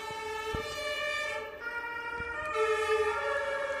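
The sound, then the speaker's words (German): An ambulance siren wails steadily with rich harmonic tones, loud, its pitch shifting slightly as it passes, with a brief dip in the middle and faint traffic rumble underneath. “Jetzt müssen wir mal kurz hier den Rettungswagen durchlassen”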